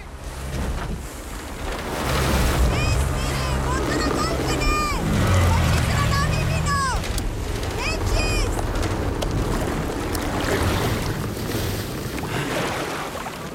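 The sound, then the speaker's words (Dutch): Rough sea water splashes and churns continuously around a small boat carrying refugees on a pitch-black night, with big waves, a deep rumble and roaring wind, while a girl wails and adults shout back and forth over the turbulent noise; the opening scene of a film. “Een bootje met vluchtelingen. Een pikzwarte nacht op de zee grote golven. Water slaat alle kanten op en een meisje jammert dat ze niet naar Europa wil.”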